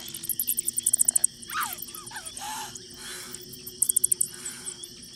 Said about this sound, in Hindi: घर की छत में कोने में छिपे चमगादड़ों का शोर साफ सुनाई दे रहा था